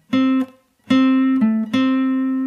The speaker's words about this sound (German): Das ist übrigens der fünfte Bund auf der G-Seite mit dem ersten Finger gespielt, nur falls ihr das nachspielen wollt. Dann könnte ich zum Beispiel einen anderen Ton ergänzen, zum Beispiel den siebten Bund auf der D-Seite.